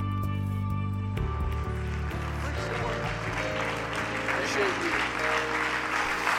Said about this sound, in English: Praise the Lord, everybody. Would you put your hands together and just clap to Jesus right now? He's worthy of praise.